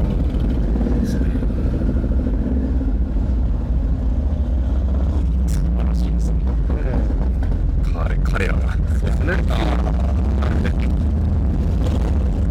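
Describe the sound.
An American car's engine rumbles steadily with a deep, continuous low growl lasting the whole time as the bright red car with a rear spoiler drives away, while people talk over it.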